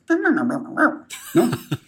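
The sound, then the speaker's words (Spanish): A chocolate labrador lets out a drawn-out, wavering whimper, then a few short, sharp yips over a brief burst of noise, in a clip under two seconds. “pues aprovechando ese talento del perro, que es un labrador chocolate, que es una de las razas más inteligentes del mundo”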